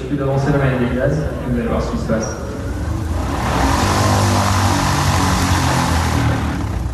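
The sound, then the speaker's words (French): The electric motor and propeller of a Vélis Electro, a 100% electric single-engine aircraft, running with a steady whine, swelling into a louder, broad rushing roar about halfway through; a voice can be heard faintly during the first few seconds. “En revanche, dès que le moteur tourne, là, le Vélis électro fait entendre sa différence.”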